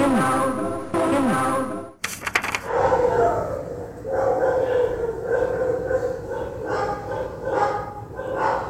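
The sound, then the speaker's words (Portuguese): Dogs bark repeatedly over a steady hiss of rain, with a drawn-out whining, howl-like cry at the start and a sharp burst of noise shortly after. “Tentei gravar o barulho da chuva talvez tenha captado também os cachorros latindo.”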